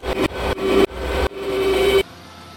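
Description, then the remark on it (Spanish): An approaching drone's motor buzzes with a steady whining pitch, swelling louder in several quick surges that each cut off abruptly before it drops to a quieter hum. “Mira, mira, ya se acerca, ya se acerca el, dron.”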